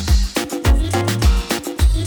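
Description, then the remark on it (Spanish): A summer theme tune by two Argentine musicians plays loud and up front, with a punchy kick drum landing about every half second under a steady bass line and layered bright tones. No one speaks. “Y lo que estás escuchando es una canción que se titula ….”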